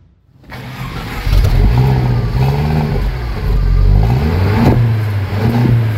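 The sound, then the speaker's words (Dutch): The engine of a blue-grey Mercedes cabriolet cranks and catches, then revs up loudly several times in rising and falling surges, with a mechanical clatter and no voices. “Wil je starten? Ik sling hem aan voor je.”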